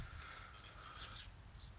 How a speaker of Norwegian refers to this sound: fuglene kvitre. ja, altså, den... Eh, hvor sitter du? Sitter du ute, eller? Nei, jeg sitter, eh, jeg sitter eh, i en utstikker vi kaller Fløyen her eh, på Nesodden. Mm. og så er det sinnssykt mange fævler utafor kåken som uh, kvitrer og får